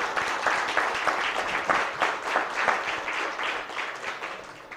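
A crowd applauds steadily, a dense wash of many hands clapping at an even level for about five seconds, with no voices heard over it.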